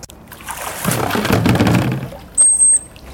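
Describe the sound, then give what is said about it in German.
Water splashes and sloshes for a couple of seconds as visitors in thick wetsuits swim with seals, moderately loud, then fades; a short, thin high-pitched tone sounds briefly near the end. “da sind auch Besucherinnen und Besucher mit dicken Neoprenanzügen im Wasser und schwimmen jetzt mit den Tieren”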